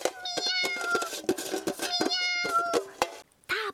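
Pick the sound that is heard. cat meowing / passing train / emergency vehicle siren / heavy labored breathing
cat meowing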